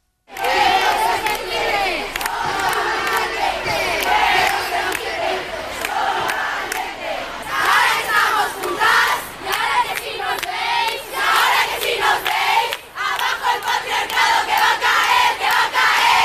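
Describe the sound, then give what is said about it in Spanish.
A crowd of thousands of women at a street protest in Madrid, Spain, chants the slogan 'quiero ser libre, no valiente' in unison against a court sentence. Loud and dense, with rhythmic rising and falling shouts repeating steadily throughout, the mass of voices filling the whole scene. “en Madrid, donde se ha podido escuchar el grito de miles de mujeres, quiero ser libre, no valiente.”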